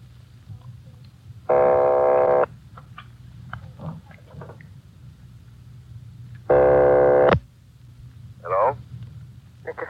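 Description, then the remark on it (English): Two telephone ringing tones come over the line as an operator rings a number on a call from Los Angeles, each a loud buzzing burst about a second long, roughly five seconds apart, with faint voices and line hiss in between. “Keep ringing, 761. They're ringing the number, Sergeant.”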